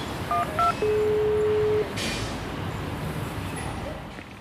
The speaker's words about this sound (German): Jetzt muss ich natürlich nur gucken, wie ich reinkomme. Klingeln wir mal.